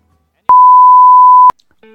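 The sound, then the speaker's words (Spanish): A single steady electronic beep, an answering machine tone, sounds loud and clear for about one second, starting and stopping abruptly, followed by a faint low hum. “Por favor, Deja tu mensaje después del VIP.”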